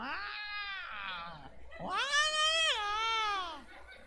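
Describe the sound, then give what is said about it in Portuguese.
Two long, drawn-out cat yowls in a row from a cat in heat, the second louder and more wailing, rising and falling in pitch, clear. “o gato quando mia, quando tá no cio, você já viu? Ele parece que fala.”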